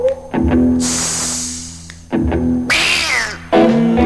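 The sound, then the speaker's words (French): A cat meows loudly, three drawn-out calls spread over a few seconds, with harsh hissing noise filling the gaps between them. No one speaks. “Miaou.”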